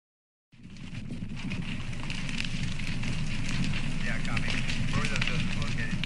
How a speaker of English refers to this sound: But first, just to jog your memory on what these fires are actually like for the people who experience them firsthand, we've gathered some footage and news reports from southern Australia and the west coast of the US.